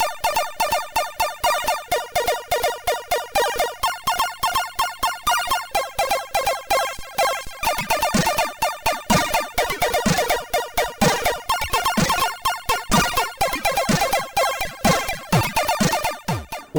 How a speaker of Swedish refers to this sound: musiken till det här spelet